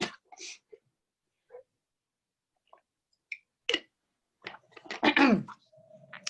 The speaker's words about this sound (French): Alors, je vais tousser, donc je suis désolée, il faut que je tousse. Donc, c'est le moment Covid.